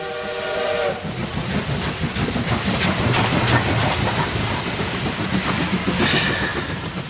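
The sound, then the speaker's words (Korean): A train, ridden to Chuncheon, rumbles steadily along the tracks with rhythmic clattering of wheels, opening with a whistle blast. The sound is fairly loud, with no voices. “아, 그리고 기차를 탔어요.”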